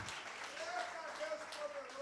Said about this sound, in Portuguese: Eu quero que você dê uma salva de palmas para o Senhor.